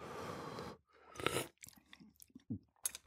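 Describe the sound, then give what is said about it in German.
A noisy slurp from a spoon of homemade soup made with fresh vegetables and a pinch of glutamate, followed by a second airy burst and then a few soft wet mouth clicks and smacks. No one speaks. “Also ich mache jetzt mal noch so eine, diese Messerspitze Glutamat dazu und dann werde ich mit dem Schlürfen gar nicht mehr aufhören.”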